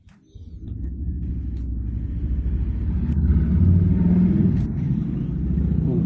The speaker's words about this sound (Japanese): 今日うるさいんすよ、ほんか、今、バイクの音が。